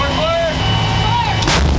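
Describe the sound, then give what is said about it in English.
Artillery fire: a steady low rumble with faint whistling tones, then a sharp, loud blast near the end that leaves a heavy booming roar. No one speaks. “Helicopters flying, planes flying, bullets, artillery, mortars, I mean, you name it, it's always something different.”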